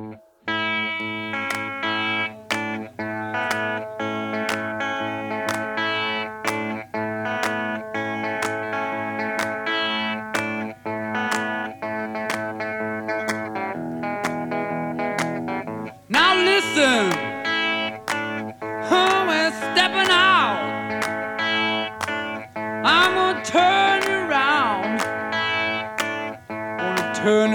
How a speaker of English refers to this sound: The song is a true Aussie classic